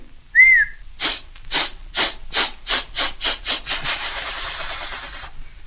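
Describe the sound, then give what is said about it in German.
A steam train pulls away: a short, shrill whistle, then loud rhythmic chuffs that start slowly and speed up until they blur into a steady hiss. No voices. “Du beeil du dich nur, der Zug wird gleich abfahren.”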